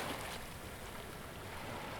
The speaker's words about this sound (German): Die milde Brandung scheint zu raunen Komm zu mir.